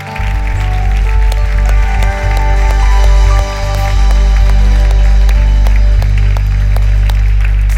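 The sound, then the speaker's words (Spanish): An audience at Iglesia JTP claps loudly and steadily for several seconds as applause to the Lord during a church service, a dense, continuous wash of hand claps over a low, sustained musical hum. “Le podemos dar un aplauso fuerte al Señor.”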